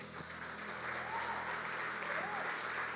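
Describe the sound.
A church audience applauds a member who has been asked to stand, a steady, dense, even wash of clapping that holds at a consistent level for the full three seconds, with faint voices mixed into the crowd.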